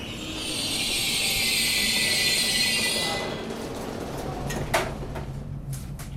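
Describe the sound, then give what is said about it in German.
Steady rumble of a moving regional train from Dillingen toward Saarbrücken, heard from inside a carriage, with a bright high hiss for the first few seconds that fades out, then scattered clicks and a brief clatter over the continuing low drone. “Am Bahnhof Dillingen kommen wir ins Plaudern, steigen gemeinsam ein in Richtung Saarbrücken.”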